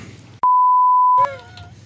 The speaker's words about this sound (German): Das piepen wir nachher raus.